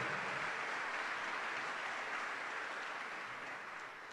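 A concert audience applauds a singer and an orchestra's singers with dense, steady clapping that fills the whole stretch, holding at a constant level before easing off slightly near the end. No one speaks over it.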